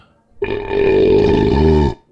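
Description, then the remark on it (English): A single loud, drawn-out belch lasting about a second and a half, deep and croaky with a rough vibrating texture near the end, with no talking. “It was definitely a belch.”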